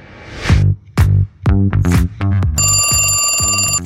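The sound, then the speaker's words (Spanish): A loud telephone bell rings with a bright metallic clatter, starting as a few separate bursts and then settling into one sustained ring. No one speaks. “Bueno, al contestar el teléfono en México siempre se escucha la palabra bueno, pero, ¿sabes por qué?”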